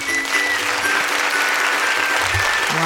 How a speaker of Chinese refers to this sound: 拍手！